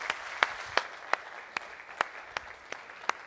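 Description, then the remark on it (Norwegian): An audience applauds in a steady, crackling wash of clapping, with a few sharper, louder claps standing out at a regular beat, roughly three per second. “Vi må gi en applaus.”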